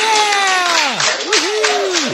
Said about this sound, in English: If all goes well, the US will see celebrations like these very soon. This is the nurses clapping.